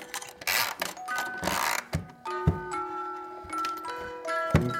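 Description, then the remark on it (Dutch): A mechanical music box in Beneden Leeuwen, Gelderland, set going with a small key in a hole under a Christ figure in a box bed, plays the Stabat Mater in a slow melody of bright, plucked metallic notes that ring out and overlap, with the whirring and clicking of its mechanism audible throughout. No one speaks. “Nu hoor je het Stabat Mater.”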